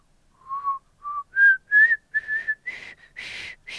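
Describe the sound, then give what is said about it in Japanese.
A person's failed attempt at whistling a tune: a shaky, breathy whistle of about eight short notes stepping upward in pitch, fairly loud, with the tone growing airy and hissy toward the end. No one speaks. “ちょっとまた訓練が必要かね、まあ、シューシュー言ってましたからね。”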